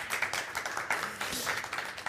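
A crowd applauds steadily, many hands clapping at once in a dense, crackling wash of sound that holds for about two seconds without letting up.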